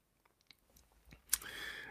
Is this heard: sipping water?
yes